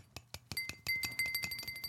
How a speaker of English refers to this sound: That sounds like a, that's a glass. ah, you see. Oh, you see. The drinking glass.